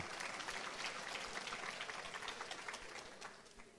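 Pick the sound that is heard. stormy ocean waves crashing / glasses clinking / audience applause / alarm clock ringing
audience applause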